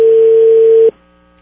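A steady, loud telephone tone holds one low-mid pitch for just under a second, then cuts off abruptly into near silence, the ring-back of an outgoing call to an engineer to order stainless steel tanks.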